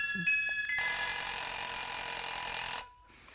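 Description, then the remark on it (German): A loud alarm clock bell rings steadily for about two seconds, then cuts off abruptly. Just before it, a few brief tinkling tones sound. “Der Wecker.”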